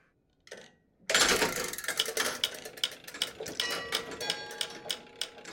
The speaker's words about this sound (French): Ou encore la mécanique d'une horloge.